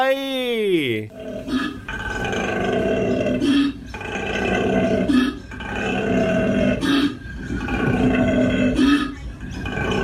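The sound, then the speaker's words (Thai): A koala bellows in a long series of deep, rasping, engine-like grunts, broken by brief gaps for breath, after an opening sliding tone. The call is loud and continuous throughout. “มาฟังเสียงโคอาลากันเถอะ”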